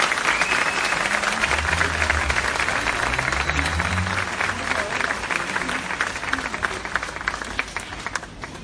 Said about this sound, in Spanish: Fuerte aplauso para ellas, como no. Muchísimas gracias.